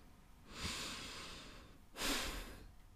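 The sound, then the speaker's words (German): A long, deep breath in followed by a shorter, heavier breath out, clearly audible, with no talking, like someone taking a slow breath to calm down. “Ähm, ich muss kurz einmal atmen.”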